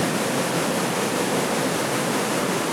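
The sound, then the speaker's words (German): Water trickles and splashes steadily from above onto the pistons of an old pump, keeping their leather seals from drying out; a continuous hiss of running water with no pauses and no voices. “Um zu verhindern, dass es, dass es trocken wird, wird immer von oben ein bisschen Wasser nachgeführt.”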